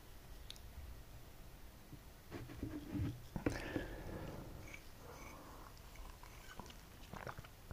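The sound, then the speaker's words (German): A cat growls low and quietly in the background because another cat is annoying it, a rumbling, tense sound that swells for a couple of seconds mid-clip, with faint scuffling and clicks around it. “knurrt gerade, weil Blackie sie ärgert”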